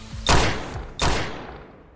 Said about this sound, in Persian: پشت قفص ها پناه گرفته بودم با اسلحه کلتی که از روی زمین برداشته بودم چند تا شلیک به سمت پایین کردم